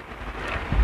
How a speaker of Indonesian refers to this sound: oh, iya. Bener lu Iya bunyi pohon kena angin